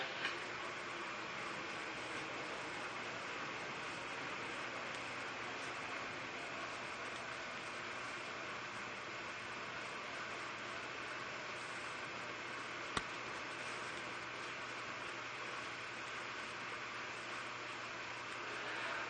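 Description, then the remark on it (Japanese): A stationary Seibu 40000 series electric train, stopped for an equipment switchover, idles with a steady, even drone of motors and ventilation that holds constant throughout, broken only by a single faint click partway through. No one speaks. “機器の切り替えのため停車しております発車まで少々お待ちください”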